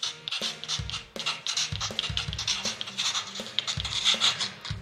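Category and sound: sound effect, pencil writing on paper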